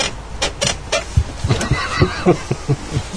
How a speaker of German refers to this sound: Also sowas. Ich meine, meine Stühle knarzen ja auch, aber sowas.